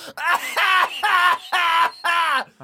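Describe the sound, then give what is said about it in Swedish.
A voice imitates a woman's screaming coughing fit on a full train: four loud, strained, wailing bursts in quick succession, each harsh and drawn out, with short gasping breaks between them. “ja men sitter man på ett fullt tåg som det här var, Mm, en hostattack är svår att dämpa, men man gör ändå så gott man kan i ett sånt läge, tänker jag. Men du vet, hon skrek, alltså av hostande.”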